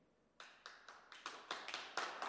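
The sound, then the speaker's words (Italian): Applause at the end of a presentation begins after a brief quiet moment: crisp, bright hand claps in a fairly steady rhythm, gradually growing fuller and louder as a small group joins in. No one speaks. “Immeritato l'applauso, ma grazie, non c'è eh, eh, problema.”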